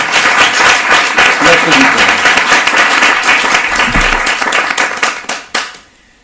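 A crowd claps for a journalist, game designer and novelist being introduced, in a dense, loud wash of applause for about five seconds, then the clapping thins out and fades quickly to near silence.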